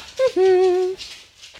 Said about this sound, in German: Oh, das klingelt an der Tür, ich gehe mal eben kurz ran.